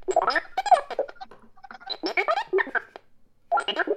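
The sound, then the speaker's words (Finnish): A battery-powered synthesizer with weakening batteries imitates the Star Wars robot R2-D2's chatter: rapid, squeaky beeps and warbling whistles that sweep up and down in pitch, coming in three busy bursts separated by short pauses. “Kuuntele, R2D2 tekee julkean ehdotuksen, niin se tekee näin.”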